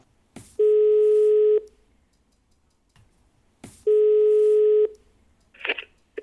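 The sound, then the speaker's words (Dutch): The ringing tone of an outgoing call to Vincent Everts: two steady, buzzy one-second beeps separated by a few seconds of silence, with faint clicks on the line and no talking. “Ik bel Vincent Everts, de man die in de jaren negentig getooid ging met het predicaat internet-evangelist.”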